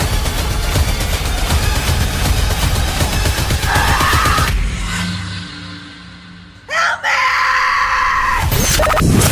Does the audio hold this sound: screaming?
yes